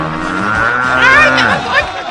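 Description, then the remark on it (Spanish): A person's voice imitates a cow's moo, one long drawn-out lowing call that rises and wavers, fairly loud, with no other talking. “Tú siempre naciste pareciendo vaca.”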